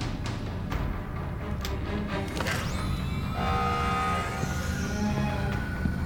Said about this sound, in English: And as you can hear, it sounds like he was successful. It's starting to set off alarms.